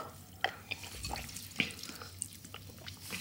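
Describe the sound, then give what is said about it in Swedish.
Sparkling water being poured into a large glass, a soft trickle with scattered fizzy pops and small splashes, quiet, with no voices. “Jag tror att du kan hälla på för det är ett stort glas där.”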